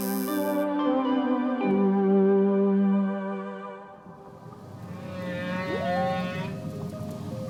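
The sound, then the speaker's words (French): Long, low, moaning calls of a baby whale with rich harmonic tones, sustained and overlapping, ending in a rising, wavering cry. They are loud, with no voices. “Oh, le beau bébé baleine.”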